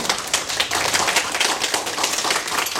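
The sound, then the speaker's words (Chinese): A crowd applauds steadily to thank the speaker's mentors and business partners, with many overlapping hand claps forming a dense, sustained crackle that stays loud and even throughout, with no voices over it. “那我想借助大家的掌声来感谢以上我想要感谢的人。”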